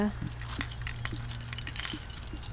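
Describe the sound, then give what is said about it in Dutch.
Keychains among the decorations on a grave jingle with a scatter of light, irregular metallic clinks and rattles, over a steady low hum in the background. “sleutelhangers.”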